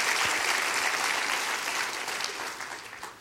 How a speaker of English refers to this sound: Clap your hands, that's a great thing. That's a great thing.